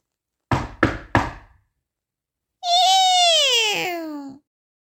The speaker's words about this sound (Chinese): 喜欢冒险的杰克马上跑到了城堡门口，用力的敲了敲门。